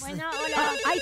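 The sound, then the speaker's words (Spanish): A telephone ringtone for an incoming call chirps with a bright, buzzy electronic warble for about a second, while a voice speaks a short greeting and laughs over it. “Eh, tenemos ahí llamada telefónica.”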